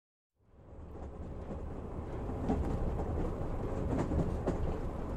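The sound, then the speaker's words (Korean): A New York No. 2 subway train rushes along the tracks with a steady, loud rumble and faint rhythmic clatter, swelling in after a brief silent start and continuing unbroken; no voices. “지금 내가 2번 지하철을 타고 쌩하니 달려가고 있는 뉴욕은 그것과는 아주 다른 뉴욕이다.”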